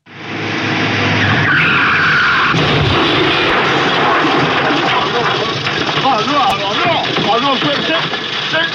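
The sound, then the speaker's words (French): In a scene from the film Le Corniaud, tires screech loudly in a skid, followed by a sudden crunching impact between Bourvil's Citroën 2CV and Louis de Funès's big car, then excited voices talk over a continuing rumble of traffic noise. “Évidemment, vous demandez, mais quand va-t-il passer le corneau et, eh cette scène entre la deux chevaux de Bourville et la grosse voiture de Louis Funès Eh bien, c'est maintenant.”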